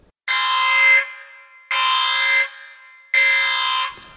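Three loud, blaring alarm horn blasts, each about a second long with short gaps between, harsh and buzzing with a slight rising swell before cutting off.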